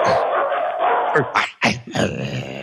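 A dog lets out a few short, rough barks and growls in quick succession, following a steady rushing noise that fills the first second.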